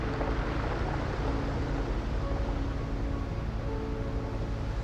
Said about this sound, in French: Vous entendez la rumeur sourde de l'eau qui remonte le long du train.